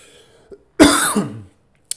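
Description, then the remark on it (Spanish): A single harsh, throaty cough lasting well over half a second, with a soft breath before it and a short click afterward; no one speaks. “una pequeña tos que no”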